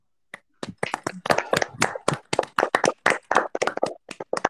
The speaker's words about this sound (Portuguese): Uma salva de palmas.